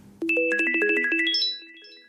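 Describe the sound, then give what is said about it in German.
A discreet electronic alert ringtone at an organ donation foundation, announcing an organ offer and ringing through almost the whole office building, plays a quick, bright run of chiming tones that rises in pitch, then the last notes ring out and fade, heard clearly on its own with no talking. “Die Vermittlung von Organen beginnt mit einem Klingelton, ein dezenter Alarm, der wichtige Informationen ankündigt.”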